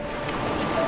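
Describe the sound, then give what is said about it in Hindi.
Sea waves wash steadily at a beach in a continuous, fairly loud surf roar with a breezy hiss, with no voices and no distinct breaks. “बीच की ओर निकल पड़ी समंदर प्रिया के बिल्कुल नज़दीक था”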